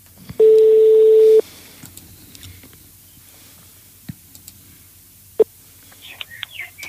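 A single loud, steady ringback tone of an outgoing phone call lasts about a second, followed by near silence with a few faint clicks and soft chirps.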